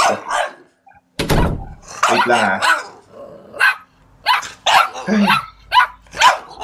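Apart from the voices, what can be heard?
puppy barking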